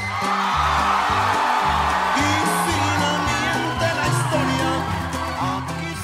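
A live norteño song plays loud and full, with a steady bass line and bright accordion-like melody, while a large crowd cheers and whoops throughout.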